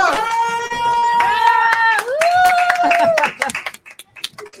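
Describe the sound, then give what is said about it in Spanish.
An audience applauds with a steady patter of claps, while long, high whooping cheers ring out over them. The cheering fades and the clapping thins to scattered claps at the end. “Pero que un aplauso, por favor.”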